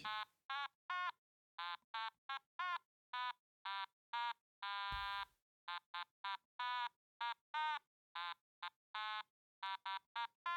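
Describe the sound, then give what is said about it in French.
A mechanical automaton plays a jaunty tune in short, buzzy, reed-like notes at a brisk steady rhythm, with one longer held note midway; clear, with no voices. “Est-ce que tu l'entends bien dans le micro, l'automaton ah bah, Il faut que ça soit dans le, dans le micro.”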